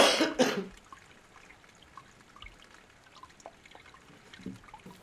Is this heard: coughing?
yes